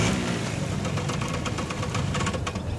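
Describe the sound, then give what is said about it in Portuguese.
A motorcycle engine idles steadily, a low continuous rumble with a faint rattling texture that holds at an even level throughout, with no voices. The motorcycle is ready after being worked on. “La moto est prête.”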